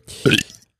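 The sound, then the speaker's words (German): A single sneeze: a short breathy intake followed by a sharp, loud burst that trails off quickly. “Gesundheit.”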